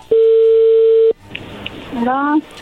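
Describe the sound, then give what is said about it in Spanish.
A single loud, steady phone ringback tone hums for about a second over a telephone line on a call to Guatemala, then cuts off as a voice briefly answers on the other end. “bueno, no hagan ruido, ya entró la llamada.”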